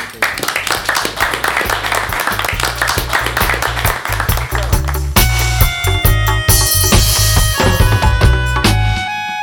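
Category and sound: crowd, audience applause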